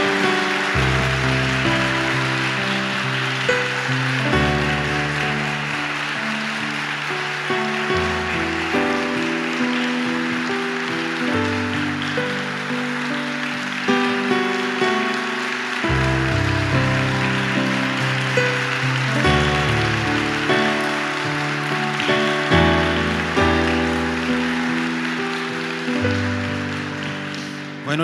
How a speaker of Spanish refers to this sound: yo creo que en esta mañana debemos darle un gran aplauso a nuestro Dios que nos ha permitido el poder estar en este lugar. Fuerte ese aplauso a Dios, fuerte.